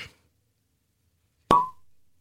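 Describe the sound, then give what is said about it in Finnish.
The cork of a bottle of red wine pops out in a studio with one sharp, loud pop and a short hollow ring that fades, coming after a faint brief rustle and a moment of near silence. “ja koska mä olen pyytänyt sua tuomaan tänne studioon itsellesi merkityksellisen viinin, niin pitäisikö meidän kaataa lasilliset?”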